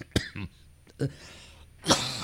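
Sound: cough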